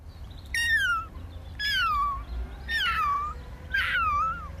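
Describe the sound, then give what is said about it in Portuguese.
A kitten mews four times in a row, each cry thin, high-pitched and sliding downward, evenly spaced about a second apart, over a low steady rumble. “Eh, parece que afinal era um gatinho bebê.”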